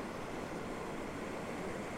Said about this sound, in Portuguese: Talvez seja por isso que a gente está aqui na natureza, conectada com o barulho da, das ondas.